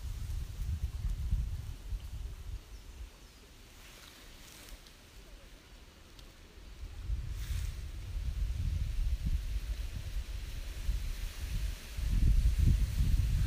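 Wind blows steadily over water lapping at the shore of Lake Shikaribetsu, a low rumbling wash that swells and eases in uneven surges, continuous throughout.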